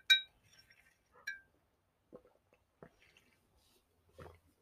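A glass clinks sharply twice near the start, followed by softer handling taps and small sounds of someone drinking water, with no talking.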